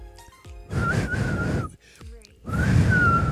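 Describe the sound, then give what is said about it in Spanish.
A person whistles in two breathy bursts, a thin, wavering tone buried in rushing air, as if struggling to get a clean note out. “Ay, ya no sé chiflar.”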